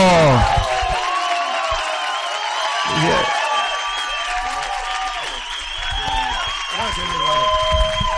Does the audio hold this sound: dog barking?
no